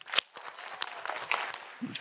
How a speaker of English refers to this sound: Clap six times.